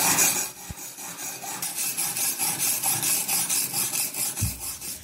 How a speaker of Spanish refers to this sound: Oiga, vecino, ¿qué es lo que hace ahí detrás de ese palo? Ah, vecina, acá sacándole brillo a esta lata. Pero si sigue dándole así, se va a quedar sin herramienta. Uy, vecina, hay que sacarle harto filo al machete para defender la paz.